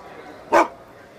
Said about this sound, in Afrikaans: Die matroos glimlag verleë en wil nog verskoning maak, maar die hond keer hom. Hy blaf 'n slag hard.